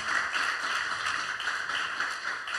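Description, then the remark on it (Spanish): An audience applauding together for the word of God, a dense, steady patter of many hands clapping at once with small swells in intensity, sustained throughout with no voices heard. “Vamos a darle un fuerte aplauso a la palabra de Dios.”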